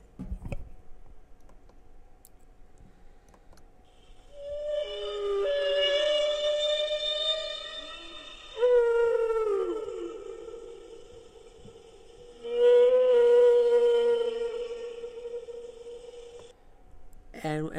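Long, low whale moans with rich harmonic overtones, sliding and wavering in pitch across three drawn-out calls with brief pauses between, loud and resonant with no talking.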